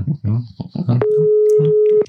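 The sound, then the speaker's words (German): People talk briefly, then a telephone ringback tone sounds as they call someone at Modewerk in Walsrode: one steady, mid-pitched hum lasting about a second, fairly loud, with soft voices continuing underneath. “Ah, es läutet.”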